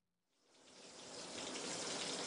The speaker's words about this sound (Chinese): 想到这儿，陈刚开始专心冲起淋浴来。